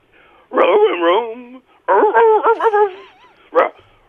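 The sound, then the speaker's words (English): A man's voice, a caller to a show pretending to be a dog, imitates a barking dog over a phone-like line, rapid yapping bursts in two long runs with rising and falling yelps, ending on one short final bark. “Right here in Orioles, about a fake dog in the jungle.”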